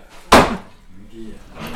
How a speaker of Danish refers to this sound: Så hakkes der igen.